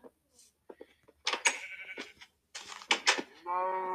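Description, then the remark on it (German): A sheep bleats repeatedly, a series of loud, wavering calls ending in one long, sustained bleat, with no talking over them. “Es hat dieses Schaf schon wieder.”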